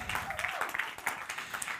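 A church crowd applauds to thank the maker of a video shown at their Worship Night, a dense wash of many hands clapping at once, with a few voices cheering faintly underneath.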